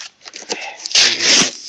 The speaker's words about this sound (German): So, jetzt habe ich hier einen Karton, den ich noch klein mache. Ich Aber kein Messer. Ah, ich kriege das Klebeband so ab. Sehr gut.